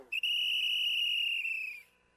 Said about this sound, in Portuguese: Eu cheguei tocando o apito, chamando pra reunir, vou cantar pra Guanizi.